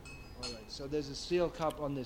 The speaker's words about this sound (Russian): Вот стальной стаканчик на столе. Вы видите? Это стальной стаканчик.